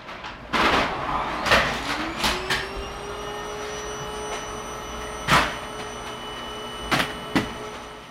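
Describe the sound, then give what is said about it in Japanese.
A vacuum cleaner motor whirs up and runs steadily during cleaning on a Saturday morning, its hum droning throughout, punctuated by several sharp knocks and bumps as the nozzle hits furniture or the floor. “正解は、土曜日の朝に掃除機をかける音でした。”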